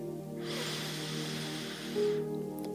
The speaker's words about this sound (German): Da sind wir. Wir atmen ein durch die Nase